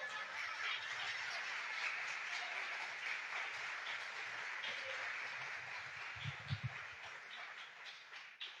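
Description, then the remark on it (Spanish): An audience claps steadily for several seconds, applauding God, a dense wash of applause with no voices rising above it, fading slightly near the end. “Si le va a aplaudir, apádale fuerte, por favor.”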